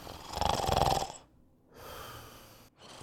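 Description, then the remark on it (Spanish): A person lying in bed fakes snoring as if deeply asleep: a loud, raspy drawn-out breath, a short pause, then a softer exhale, with another snore just starting at the end. No talking. “Se recostó en su cama y al cabo de un rato fingió roncar, como si durmiese profundamente.”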